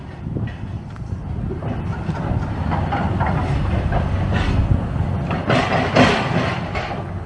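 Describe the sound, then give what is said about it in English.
A train rumbles past at Huntingdon train station on 1 November 2021, its low roar steady and loud throughout, with hissing bursts and a rhythmic clatter of wheels over the rails. “Sorry about that, but the train.”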